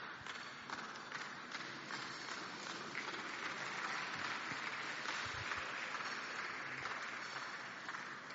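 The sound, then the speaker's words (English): A church audience, rising to their feet, claps their hands in a dense, sustained wash of applause, steady and fairly loud throughout, with no voices standing out. “Clap your hands together, rise up onto your feet.”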